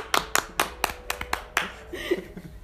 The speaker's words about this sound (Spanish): Aplausos.